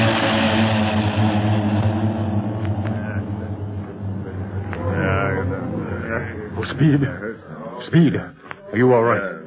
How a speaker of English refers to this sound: Okay, but don't move. No one must move until those planes are out of sight.